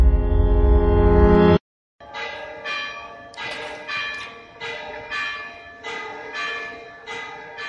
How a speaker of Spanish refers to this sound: Este es el sonido de la guamba, la campana en activo más antigua del mundo, del siglo XIII, y suena desde la torre gótica de la Catedral de Oviedo.